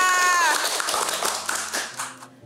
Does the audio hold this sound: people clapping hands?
yes